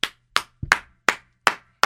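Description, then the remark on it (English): A standing person claps their hands about seven times at a steady, unhurried pace, applauding a text message, each clap a sharp, bright smack, with one quick double clap partway through. No voices are heard. “I'm standing right now and applauding that text.”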